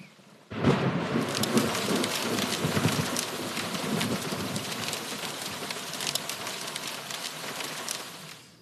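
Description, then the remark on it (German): Steady heavy rain hisses and patters continuously, with a low rumble of thunder rolling underneath from about half a second in; no voices are heard. “Vielleicht macht es der Herrgott für uns gleich.”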